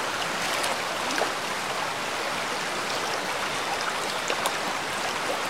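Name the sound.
waterfall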